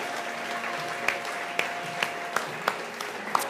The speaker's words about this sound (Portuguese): e aplauda Ele que é digno de receber. Aplauda ao Senhor, aleluia.